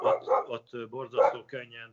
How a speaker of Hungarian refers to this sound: Várjál csak a kutya elkezdett ugatni. Hát ez a kutya ilyen egy.